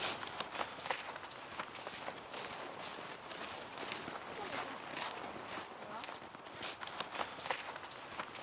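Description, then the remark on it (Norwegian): A very large horse's hooves walk in a steady rhythm of repeated thuds and scuffs over a constant background hiss, with faint voices in the background. “Det var så svær hest og sånn. Så når den begynner å trave og sånn, da syns jeg det gikk fort.”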